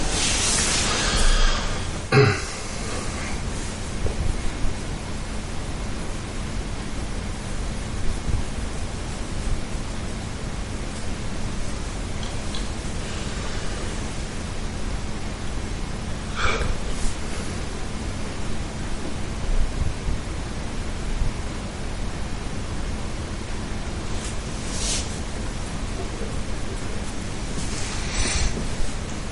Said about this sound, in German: Regen.